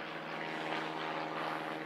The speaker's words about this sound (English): Now, here, here we go. Here's this plane now. Is this the same one from a few weeks ago? Wow.